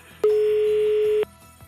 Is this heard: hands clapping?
no